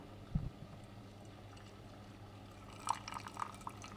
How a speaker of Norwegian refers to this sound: Nei, men jeg bruker jo italia Italiakannen til fell, men nå skal jeg helle Hør nå, da. Nå heller jeg deilig kaffe.